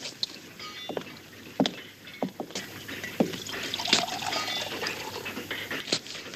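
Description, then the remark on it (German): Water bubbling at a rolling boil for coffee, a steady hiss broken by irregular sharp pops and gurgles, with no voices. “Das Wasser kocht schon.”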